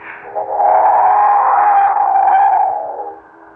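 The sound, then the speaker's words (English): A single long train whistle at Dover Ridge sounds on its own, a steady, loud, reedy tone that swells in and holds for a few seconds before fading, with an echoing quality. “Oh, that train whistle. It's been driving me bats all morning.”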